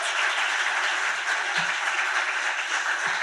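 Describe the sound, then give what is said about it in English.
An audience claps steadily in a dense, continuous wash of applause, welcoming a guest as she comes out, holding at an even, fairly loud level throughout, with no voices standing out. “Um, can you give her a big round of applause for me?”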